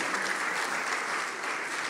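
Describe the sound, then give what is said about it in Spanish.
Steady audience applause at a church for three people who performed, a dense wash of many hands clapping at a fairly loud, even level for the full two seconds, with no voices standing out. “Un aplauso para ustedes porque lo hicieron los tres.”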